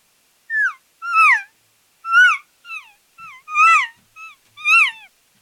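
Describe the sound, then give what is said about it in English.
A series of about eight short, nasal, descending cow elk mews blown on a call by an elk hunter moving in on a bull, loud, coming in quick uneven bursts with brief gaps and no talking. “You move in that area. You start hitting them with cow sounds.”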